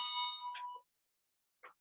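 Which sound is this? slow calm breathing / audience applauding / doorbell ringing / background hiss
doorbell ringing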